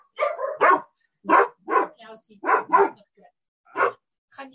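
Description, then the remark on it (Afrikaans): A dog barks several times in short, separated bursts, fairly loud, with brief pauses between barks and some quieter whimpering sounds in between. “Skies my hond is hier tussenin.”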